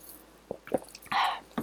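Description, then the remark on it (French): A quick sip of lemon water: a few wet lip and mouth clicks, then a short slurping draw and a final smack, with no talking. “Je vais prendre une petite gorgée de mon eau citronnée, ça ne me dérange pas?”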